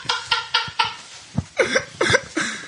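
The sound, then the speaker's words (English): A rubber dog chew toy squeezed over and over, giving a quick series of about seven or eight loud, squawking honks in an uneven rhythm, with no talking. “Has to grab my dog's chew toy that that makes that honking noise.”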